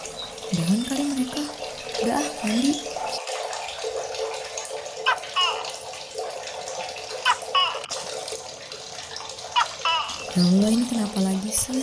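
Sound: running tap water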